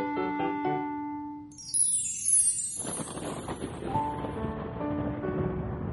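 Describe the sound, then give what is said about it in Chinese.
A few soft musical notes and a rising sweep give way to a steady hiss of rain, continuing evenly to the end with faint tones mixed in. Nobody speaks. “我是小兔子汤姆，我不高兴，因为今天下雨了，不停的下，不停的下，这雨什么时候才能停呢？”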